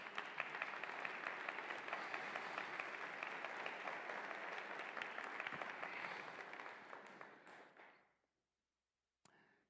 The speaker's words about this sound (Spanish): Vamos a dar una ofrenda de aplauso.